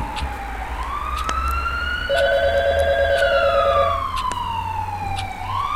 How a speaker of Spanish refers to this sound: a lo lejos se escuchaba venir a las patrullas de policía que ya habían recibido un reporte de un robo en curso a casa habitación.